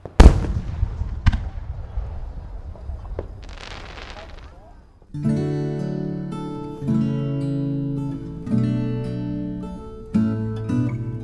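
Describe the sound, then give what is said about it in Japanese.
A few loud firework bursts boom and crackle at a summer fireworks festival over about five seconds, followed by bright, steady music that takes over for the rest. “毎年僕の勤める会社では社員全員で花火大会を楽しむ習慣があります真夏の場所取りは大変ですが浴衣を着ての花火鑑賞はなかなか風情があります”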